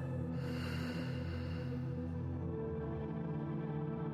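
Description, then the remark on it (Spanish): A long, deep exhalation of breath following a deep inhale, soft and breathy, trailing off after a couple of seconds over a steady low humming drone, with no one speaking. “Y exhala.”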